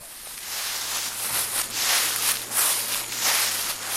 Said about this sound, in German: So rascheln die Kokablätter, die Bauer Justo Quispe auf dem Sportplatz von San Pedro Pichari trocknet. Ein winziges Dorf am Ostabhang der Anden Perus.